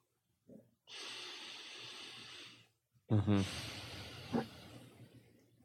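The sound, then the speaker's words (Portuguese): A single deep breath: a long, airy inhale, a brief pause, then a slower exhale that ends in a soft, voiced sigh. “y quien está te este video con certeza, respiró después de mí”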